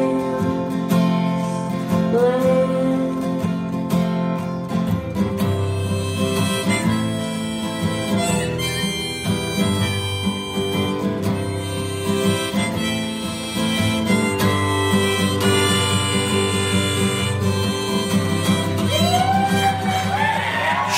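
A live acoustic concert performance at the Masonic Lodge in Hollywood, Los Angeles, plays loud and steady throughout, with sung vocals over strummed instruments and faint audience shouts and cheers mixed in.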